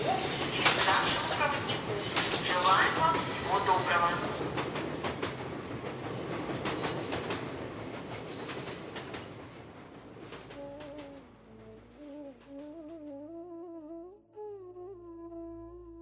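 A train rumbles loudly along the rails with a rhythmic clickety-clack of wheels, the rolling noise easing off toward the end as a steady, wavering metallic whine takes over.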